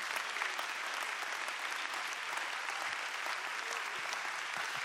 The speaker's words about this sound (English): Can you give the Lord a hand clap of praise in this house today?